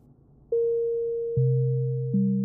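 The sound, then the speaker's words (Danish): A telephone line tone on an outgoing call: steady electronic beeping tones that step in one after another and hold continuously, fairly loud, with no voices. “På hjemmesiden er der også et telefonnummer til Maria From Jacobsens svoger, Niels From, som står for indsamlingen, og ham ringer jeg til.”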